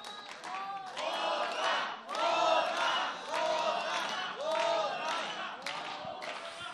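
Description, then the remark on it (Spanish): A large concert audience, on a Radio UNAM broadcast, cheers, shouts and claps to send off the band and call for a couple more songs, in loud, rhythmic swells, roughly one surge per second, with clapping mixed into the steady roar of voices. “para despedirlos con un caluroso aplauso, con las voces y aplausos de todos ustedes, porque queremos un par de canciones más, todavía tenemos tiempo.”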